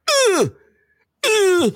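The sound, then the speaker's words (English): A voice imitates a tennis player's grunt while hitting: two loud, drawn-out cries, each about half a second, sliding downward in pitch, separated by a short silence. “So, what are you gonna tell tennis players they can't go?”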